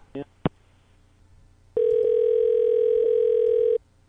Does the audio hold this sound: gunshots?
no